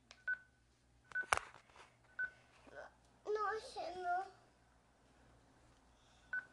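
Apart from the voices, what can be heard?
telephone dialing tones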